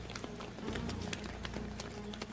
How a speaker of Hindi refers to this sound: वो उसके अंदर जाने ही वाले थे कि चारों तरफ से अजीब अजीब आवाजें आने लगी बहुत से कदमों की आहट बार बार उन्हें सुनाई दे रही थी